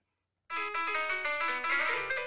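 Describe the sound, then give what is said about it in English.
A short, bright piano-like melody of several quick notes, played on a piano app on a phone with a thin, tinny tone, clear with no voices over it. “We're not going to be on using a piano that.”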